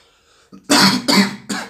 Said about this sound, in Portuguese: Olha a tosse aí, gente! que falta de educação. Tossir em público.